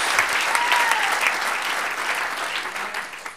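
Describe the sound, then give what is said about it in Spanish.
An audience claps steadily in a dense, sustained wash of applause for the Lord that holds for several seconds before thinning slightly at the end, with a faint voice or cheer rising through it. “Ahora démosle un aplauso al Señor, gloria a Dios.”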